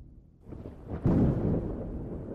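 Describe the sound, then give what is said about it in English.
A deep rumble of approaching rolling thunder swells up after a quiet start, then surges into a loud, sustained roar that lingers without fading, with no voices present. “Listen to the rolling thunder as it comes toward us brings peace and clarity.”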